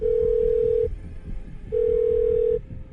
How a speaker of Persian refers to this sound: دو تا بوق میخوره و بعد تلفنش رو جواب میده